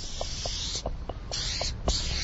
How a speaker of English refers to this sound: Hence the need for a special spray can that doesn't rattle when he works. A special burner chrome, special imported from Germany.